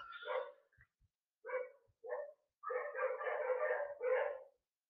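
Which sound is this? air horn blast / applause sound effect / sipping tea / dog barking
dog barking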